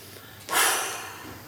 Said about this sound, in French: Et puis la respiration, l'inspire